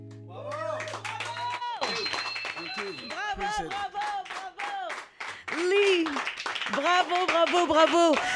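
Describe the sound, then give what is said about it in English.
Studio audience applause with steady clapping running throughout, mixed with loud whoops and cheering voices rising and falling over it for several seconds, after a live music performance in the TSF Jazz studios in Paris. “mesdames et messieurs, encore plus d'applaudissements, ah, yes, en live dans les studios de TSF Jazz à Paris”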